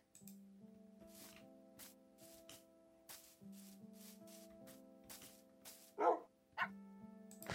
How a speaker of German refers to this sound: Und ein Welpe, oder? Ja. Und dieser Welpe ist auch gleich mein Freund.